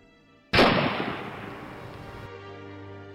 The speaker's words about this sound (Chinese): 当枪声响起，这场帷幕也终于拉开。